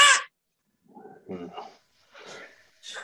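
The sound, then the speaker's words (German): A person mimics a crow's caw with a few harsh, raspy vocal bursts separated by short pauses. “Jedenfalls war das so, da, den, das Geräusch einer Krähe nachzumachen, war sehr en vogue.”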